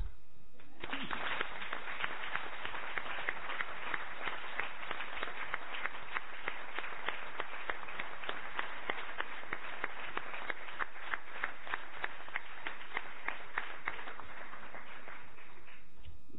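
Sustained applause from a large crowd for the proclamation speakers at a 2016 event in a town of 8,400 inhabitants, steady dense clapping that starts abruptly, holds for about fifteen seconds, then stops, with no talking.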